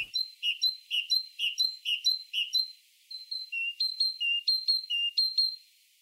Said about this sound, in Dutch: Wat horen we hier? Eh, dit is een koolmees, maar het is niet zomaar een koolmees. Hij is eigenlijk iets heel speciaals aan het doen. Ehm, hij doet zich eigenlijk groter voor dan het hij eigenlijk is eh, met zijn roep.